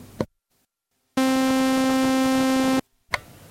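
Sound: synthesizer sawtooth wave tone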